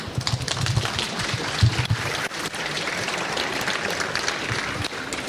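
A steady wash of audience applause welcoming a speaker introduced for a talk on DevOps, dense overlapping claps filling the whole stretch at an even, fairly loud level with a few sharper accents early on, no voices heard.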